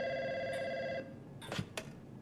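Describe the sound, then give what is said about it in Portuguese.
A telephone rings with a steady electronic trill for about a second, then stops, followed by a few short clicks as if the handset is picked up; a call to a Pernod Ricard lawyer about the Bacardi trademark case, April 1997. “No telefone está um dos encarregados do processo de registro de marca contra Bacardi.”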